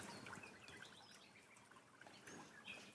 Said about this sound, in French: C'est les rossignols qu'on entend là. Tout à fait. Allez, on s'offre un petit coup de rossignol ça fait du bien pour nos auditeurs qui bossent aujourd'hui